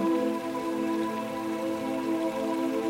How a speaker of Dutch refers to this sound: En we staan niet voor niks op die brug bij die waterval, die stromende waterval.